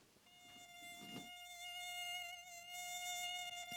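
Mosquitoes buzzing with a thin, steady, high-pitched whine that holds almost unbroken for several seconds, fairly clear, with no voices.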